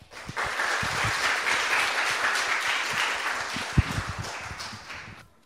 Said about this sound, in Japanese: 拍手を持ってお迎えください。